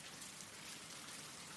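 Steady rain falls continuously, a soft, even hiss of countless drops with no pauses or voices, fairly quiet and constant throughout.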